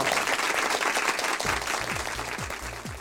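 Steady applause from a group fills the whole stretch, dense overlapping claps at a fairly loud level, with a few low thumps rising in pitch underneath toward the end, celebrating the first anniversary of the municipal shelter of Salta.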